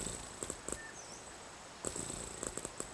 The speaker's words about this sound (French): Vous pouvez ici entendre le ronronnement d'un chat libellule